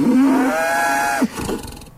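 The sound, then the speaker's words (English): A single long, loud cow moo, held steady for over a second before breaking off into a brief rough tail and quiet. “Yes, there's an earshot prize up for grabs for the best inclusion of a cow moo in a piece of radio imaging.”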